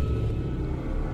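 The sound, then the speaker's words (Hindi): A car engine rumbles low and steady throughout as the car is driven along a road, a continuous deep drone at moderate loudness with no voices and no clear cut-off. “और उसकी गाड़ी चलना बंद हो गई”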